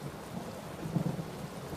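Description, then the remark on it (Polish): A low roll of thunder swells briefly amid steady storm rain, a rumbling rather than sharp crack, with no voices present; a powerful thunderclap with a flash of lightning from a storm raging outside. “Zamiast starca odpowiedział mi potężny grzmot i błysk.”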